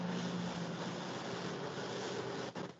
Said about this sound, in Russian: И у меня есть опять трактор едет.